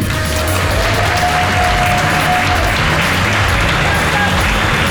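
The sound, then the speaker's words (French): Sustained applause, a dense, even clatter of many hands clapping that fills the whole clip at a loud, steady level, with voices mixed in beneath it. “Mais, mais arrêtez d'applaudir”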